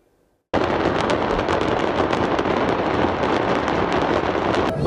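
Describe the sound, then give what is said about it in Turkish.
After a brief quiet moment, a loud, continuous roar of fire at the exploded Akvaip Şef factory erupts, with smoke and flames spreading, packed with rapid crackling pops and small explosive bursts that keep going without pause, intense. “Akvaip Şef Fabrikası patladı şu anda. Dumanlar bizim oraya geliyor. Alev alev şu an alev alev.”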